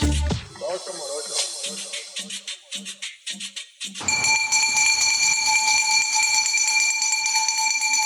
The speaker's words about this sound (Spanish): Si hay un sonido que te hace correr cual maratonista en cuanto lo escuchas, es la estridente campana del camión de la basura. Ese que anuncia la llegada del servicio encargado de mantener limpia la ciudad